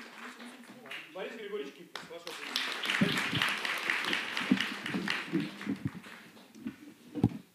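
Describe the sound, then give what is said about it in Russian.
A voice speaks briefly, then an audience breaks into sustained applause, a dense crackle of many hands clapping that holds steady for several seconds and stays fairly loud. “преподаватель литературы Елена Грачева, ваши аплодисменты, историк и школьный учитель”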